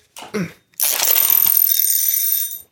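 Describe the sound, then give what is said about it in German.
A bell is struck once and rings for about two seconds, sounding muffled and buzzy with a metallic rattle, with a camera lens hood lying on it. A short low bump comes just before it. “Oh, meine Streulichblende ist noch auf der Klingel.”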